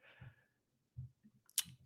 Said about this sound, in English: People need to never mind my typing. I'm double checking some things.